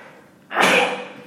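A single sudden sneeze bursts out loudly, a sharp explosive blast of breathy noise lasting about half a second before fading, with no talking around it.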